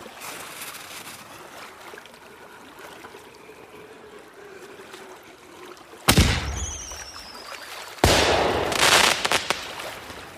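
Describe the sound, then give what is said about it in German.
Two sharp fireworks blasts go off in the night sky a couple of seconds apart, launched from a three-masted ship at a birthday celebration. The first is followed by a brief whistle and the second trails into crackling, over a steady watery hiss. “Die Matrosen tanzten auf dem Verdeck, und als der Königssohn zu ihnen hinaustrat, stiegen zahllose Leuchtkugeln wie Freudenrufe in den Himmel der Nacht.”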